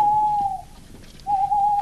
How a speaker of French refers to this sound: Planqués dans les fourrés comme des sioux, imitant le cri de la chouette ou du hibou pour communiquer, les Blancs surgissent d'un coup en hurlant « Rambard !» leur cri de guerre.